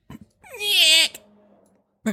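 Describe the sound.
A voice imitates a camera adjusting as a sound effect: one high, warbling mechanical whirr lasting about half a second, fairly loud, trailing off into a softer hum, with brief breathy sounds before and after.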